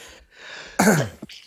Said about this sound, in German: Ah, Gesundheit.